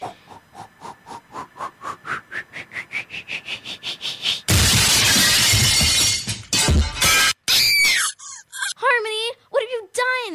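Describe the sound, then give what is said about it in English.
A loud, sustained crash of a vase shattering bursts in after a quick series of rising tones, followed by warbling, chirpy sounds that trail off near the end. “Not only is her precious vase shattered, but the Elvis is totally destroyed.”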